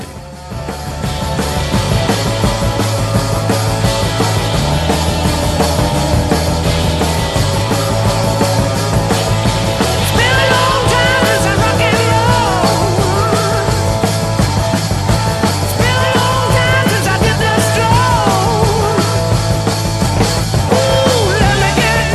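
A loose, informal rock jam with piano plays loud and steady throughout, full band sound with drums, guitar and bass driving along and no voices talking over it.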